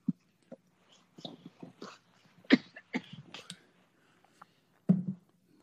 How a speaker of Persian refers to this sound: بذار من قلوب بربن بزنم تو که داری سرفه میکنی